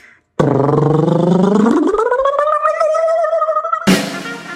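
A voice imitates a drum roll with a loud, fluttering rolled sound that climbs steadily in pitch for about three seconds, then cuts off into a short burst of noise.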